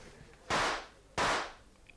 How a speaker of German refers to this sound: Hey, was war denn das? Das waren doch zwei Schüsse. Ach Quatsch, das war der Auspuff von einem Wagen.